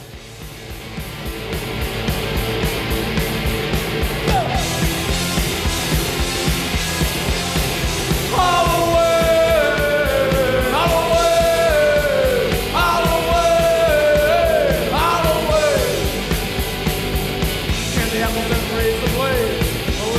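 A loud horror punk song plays throughout, with dense distorted guitars and pounding drums, then a shouted, sliding male vocal line entering partway and repeating in bursts over the steady band.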